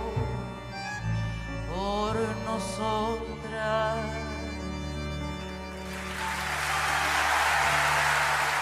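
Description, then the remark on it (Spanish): The last sung notes of a song at a live performance give way to an audience ovation, a dense, steady wash of clapping that swells and carries on loudly to the end. “Acompaño la ovación”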